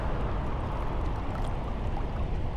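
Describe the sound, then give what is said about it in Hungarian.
A small stream of water trickles and gurgles steadily through a huge, widening, almost completely dried-out riverbed, a continuous wash of flowing water with no voices. “Nem érdekes, mert Csordogál itt még egy kis víz.”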